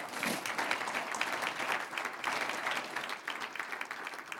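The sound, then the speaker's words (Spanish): A church audience bursts into sustained applause offered to God, a dense, steady patter of many hands clapping at once, holding an even loudness throughout with no voices standing out. “Un aplauso al que vive.”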